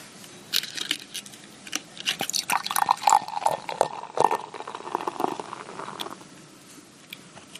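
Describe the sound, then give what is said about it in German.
Rothaus beer pours steadily into a glass, a gurgling, splashing stream with fizzy crackle that swells in the middle and tapers off near the end, with no talking. “Nee, jetzt erstmal einschenken.”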